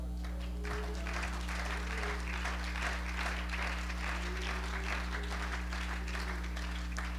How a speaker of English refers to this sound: Hallelujah. Why don't you clap your hands under the Lord?